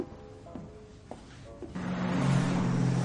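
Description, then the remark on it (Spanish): A patrol car drives along a road, its engine hum and tire noise swelling sharply about halfway through as it approaches, loud and steady with no voices. “Un coche patrulla circula por una carretera.”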